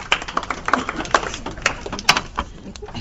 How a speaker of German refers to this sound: Das war das Ramazzotti-Glas. Oh, also, das war das Ramazzotti-Glas, das jetzt umgefallen ist.